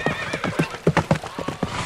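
Hooves of a nobleman's horse and his companions' horses riding back to his castle clip-clop in a quick, steady rhythm, fairly loud, with a horse's neigh rising over the hoofbeats.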